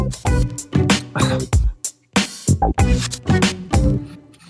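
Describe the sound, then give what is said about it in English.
A harsh, distorted, lagging sting jingle stutters along in choppy bursts, its buzzy, crackling tone cutting in and out with brief gaps, loud with no one talking over it. “the first one sounds like this sting is like not gonna like something is the audio is distorted”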